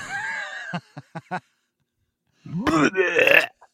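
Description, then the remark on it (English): A voice mimics vomiting: a strained, warbling groan, four quick gagging pulses, a brief silence, then one longer, loud retching heave. “Vomit sound.”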